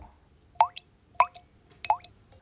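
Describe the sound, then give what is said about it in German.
Dirty water, filtered through cloth layers, drips into a container, a few distinct plopping drops falling roughly every half second, quiet and clear with no voices. “Nach kurzem Warten fängt es jetzt auch gerade wieder an zu plätschern.”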